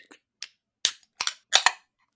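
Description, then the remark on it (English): Cans of a sweet milk stout with lactose, conditioned on espresso beans, being cracked open: a run of sharp metallic pops with short fizzy hisses, about six or seven in quick, uneven succession, the later ones louder, with no voices. “In three, two, one, crack.”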